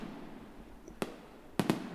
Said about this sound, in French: Mais d'un coup, un pétard plus puissant que les autres éclate très haut au-dessus du village.